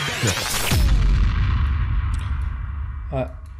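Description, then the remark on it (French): A short produced jingle introducing a segment, built on a loud explosion: a booming blast with sweeping, crackling debris up top, fading into a rumbling tail, then a brief swooshing accent near the end. “je t'ai fait péter ton jingle, tu vas pouvoir euh, nous régaler de ta chronique.”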